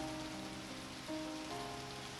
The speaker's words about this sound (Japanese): 川面に雨粒がふわりふわりと円を描く。参ったなあと男は空を見上げる雨はどんどん激しくなっていく